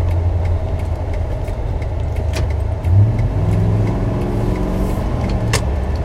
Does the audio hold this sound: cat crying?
no